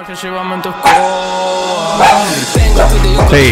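animal, dog barking

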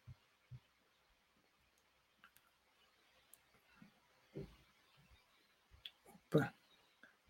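household object, computer mouse clicking

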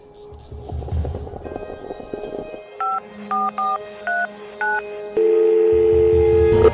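signal or alarm, telephone number being dialed

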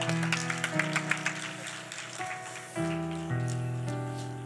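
crowd, loud applause

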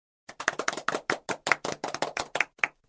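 crowd, hand clapping

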